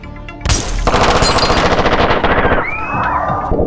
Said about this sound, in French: L'opération montée à la hâte se termine en fusillade.